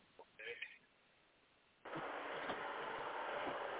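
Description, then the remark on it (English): A few quick, high-pitched landline dialing tones beep in a short burst, followed by a pause and then a steady, loud rush of hissing line noise that continues to the end. “i go get the landline.”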